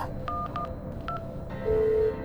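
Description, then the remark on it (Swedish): Three short electronic keypad beeps as the emergency number 112 is dialed, followed by a steady ringing tone on the line. No one speaks. “Eftersom ni inte har en egen bil ringer ni 112”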